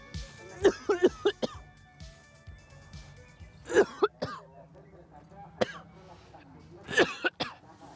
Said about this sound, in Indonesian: Pertama-tama, angkat abu arang yang menutup bagian atas tong. Nah, saya sempat mengira panen arang ini akan mudah. Tapi abunya, wah, membuat saya batuk-batuk terus pemirsa.